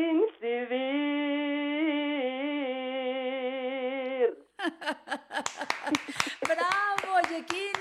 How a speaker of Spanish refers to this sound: Todos aplaudiendo que estás cantando en vivo, en directo, a capela, en La Mujer Actual.